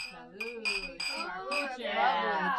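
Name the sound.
glasses clinking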